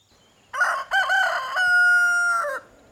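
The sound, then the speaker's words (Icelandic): A rooster, Hanni Krani in the story of the rolling pancake, crows once, a loud cock-a-doodle-doo lasting about two seconds, with a choppy start and a long held final note, heard alone against quiet background. “Og rullaði svo áfram niður veginn, þanga til hún hitti Hanna.”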